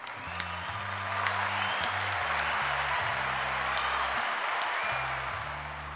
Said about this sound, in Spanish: Ponme los aplausos, por favor, ponme los aplausos.